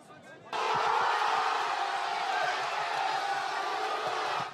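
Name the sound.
crowd cheering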